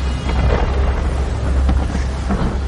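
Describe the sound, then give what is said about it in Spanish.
A thunderstorm at sea in a trailer for a Vikings series: a steady, heavy roar of rain and wind with deep rumbling thunder underneath, loud and continuous throughout, with no voices. “¿Has atravesado ese temporal en barco?”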